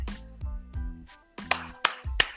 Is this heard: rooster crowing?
no